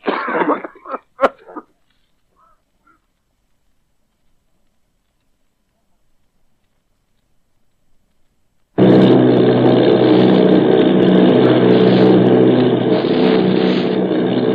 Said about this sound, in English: Army bombing plane V 843 off Bayonne, New Jersey.